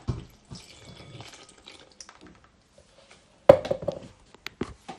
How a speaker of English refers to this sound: Right, that's half a pint of milk measured out. Okay, so I'm just going to pour the milk in with the bread.